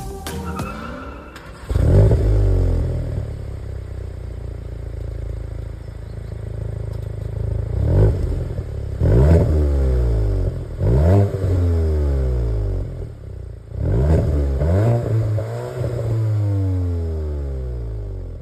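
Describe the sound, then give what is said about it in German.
A four-cylinder VW Golf GTI hot hatchback engine revs repeatedly, with several sharp throttle blips rising and falling over a steady idle, sporty and slightly growly, with no voices. “hören wir natürlich einmal, wie dieses Fahrzeug klingt”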